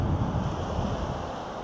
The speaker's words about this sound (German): Geh mal wegen des Windes auf der anderen Seite von dir.